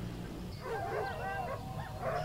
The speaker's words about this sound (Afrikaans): Ek het nêrens om weg te kruip nie en die kwaai honde kom al nader, sê Jakkals.